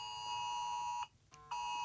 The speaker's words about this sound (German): Ich bin's nicht. Ach, das ist mein Handy.